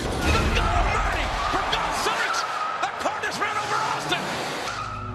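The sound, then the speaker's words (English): Car tires screech and skid loudly in a car incident, with several sharp crashing thuds of impact over about five seconds, set against dense background noise and indistinct voices. “The car incident left Stone Cold with severe neck damage”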